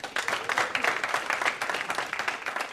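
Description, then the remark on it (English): An audience applauds for Eatonville, Florida and its accomplishments, many hands clapping in a dense, crackling wash that stays fairly even in loudness throughout, with no voices rising above it. “It's a great day to be in Eatonville, uh, so thank you, and another round of applause for, uh, for Eatonville and all you've accomplished.”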